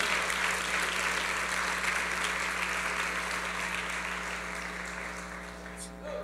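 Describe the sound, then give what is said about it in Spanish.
An audience applauds steadily, clapping for the Lord with all their strength: a dense wash of many hands clapping at full strength that tapers slightly toward the end, with a low steady hum underneath. “Si es, hay alguien aquí que está agradecido por eso, puede darle las palmas al Señor con, con toda su fuerza, porque Él es bueno y es misericordioso.”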